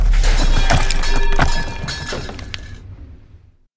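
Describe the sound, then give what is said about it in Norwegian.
A loud crash as a stone troll hits the ground and smashes apart into thousands of small stones, heard through a forest, with sharp cracks and a rush of scattering pebbles that rattle and fade away over a few seconds. “Et voldsomt brak høres gjennom skogen når steintrollet treffer bakken og knuses til tusenvis av småstein.”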